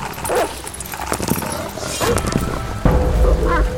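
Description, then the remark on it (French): Two big guard dogs, mastiffs, bark and snarl ferociously as they rush at and attack a person, their loud, overlapping growls and yelps churning together in a frantic scuffle, with a heavy impact thudding in near the end. “Avant qu'il ne puisse finir sa phrase, deux chiens de garde, des molosses, se ruèrent sur lui.”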